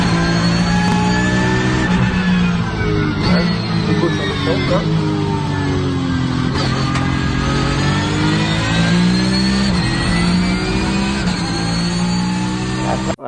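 A car engine holds a steady, loud drone at light throttle through a right-hand bend, used to keep a little traction, its pitch gently rising and dipping, with no voices over it.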